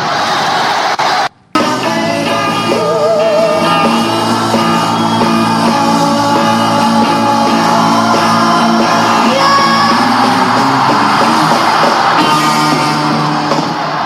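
A singer lets out a long, loud, raw scream to close a live rock song, the band and a cheering crowd roaring beneath it after a brief cut at the start.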